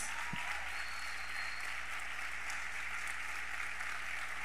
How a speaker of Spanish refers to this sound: porque qué no te pones de pie y le das fuerte ese aplauso a Jesús? Hazlo más fuerte, vamos.